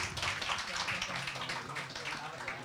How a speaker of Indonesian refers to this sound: Kita berikan tepuk tangan untuk para pemenang.